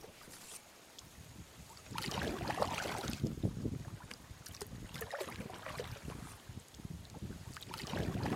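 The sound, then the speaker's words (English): Canoe paddle strokes dip and pull through water in a steady rhythm, with soft splashes and swirling drips, over a faint breeze and gentle lapping. “Each time you dip your paddle in, you can feel it grow heavier under the surface as you press it down and back.”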